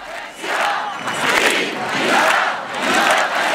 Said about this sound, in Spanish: En Barcelona, un día antes, millares de personas habían gritado al unísono esto otro.